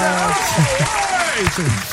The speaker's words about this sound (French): On va agrémenter ça d'une main d'applaudissement.